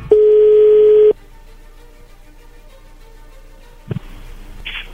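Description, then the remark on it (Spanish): A single loud, steady telephone ringback tone lasts about a second as a call is placed, then faint line hiss follows, broken by a click and a burst of noise as the call connects. “Bien, a ver, vamos a, vamos a marcarle, no haga ruido, por favor.”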